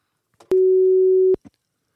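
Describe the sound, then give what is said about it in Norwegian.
One steady, mid-pitched ringback tone from an outgoing phone call sounds for under a second, bracketed by soft line clicks, with no one talking. “Så jeg foreslår at vi ringer henne med en gang og hører hvordan det ligger an.”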